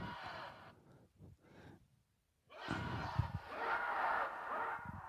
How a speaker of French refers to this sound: Alors ça a commencé par un truc où j'avais fait euh, gueuler la foule euh, le soir du vernissage. Donc c'est un truc, alors on va voir si on entend bien, mais ça fait des samples comme ça.